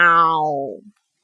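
A single drawn-out meow, a human voice imitating the cat from Puss in Boots, holding steady and then sliding down in pitch before stopping abruptly, with nothing else around it.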